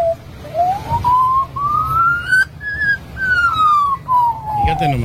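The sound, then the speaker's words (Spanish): An Australian magpie in Australia mimics an emergency siren: a clear, whistly wail that climbs slowly, holds, then sinks again over several seconds, with a low background rumble and a brief scuffle at the end. “Esto que van a escuchar es un, una urraca, una urraca en Australia, el uluar de una sirena.”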